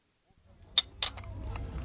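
A few bright clinks of porcelain cups knocking together as cups are being bought, sharp and brief over a low murmur of background noise, with a couple of softer taps following.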